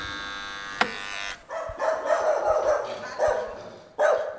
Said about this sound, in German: Claudias Hündin Juma begrüßt den Besucher misstrauisch. Ihr Bellen hallt über die Steintreppen.